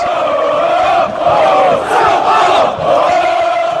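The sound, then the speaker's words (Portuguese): A large crowd of organized football supporter groups chants war cries loudly in unison at a sporting event, a sustained, rhythmic chant rising and falling in waves with slight dips between phrases, filling the space with dense, continuous voices. “As torcidas organizadas são famosas por cantar gritos de guerra durante os eventos esportivos.”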